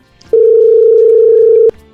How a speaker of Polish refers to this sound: Coś dzwoni. Dzwoni nasz smartfon.